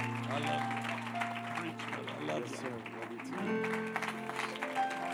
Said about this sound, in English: Come on, let's give that great hand clap of praise to the Lord. Amen. He is worthy.